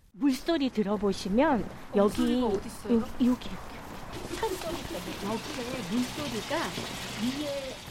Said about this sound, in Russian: Слышите? Это звучит вода в речке, которая берет начало на горе Инангсан и продолжает свой бег в деревне Сочон. Правда, теперь речка скрыта под дорогой, но если прислушаться, то можно расслышать и шум воды.